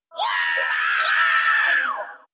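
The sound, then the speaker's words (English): A single sustained, high-pitched rock vocal scream in a song holds steady for about two seconds before falling off, loud, with no other voices; it leads into the guitar solo. “great scream coming up here that leads into the guitar solo.”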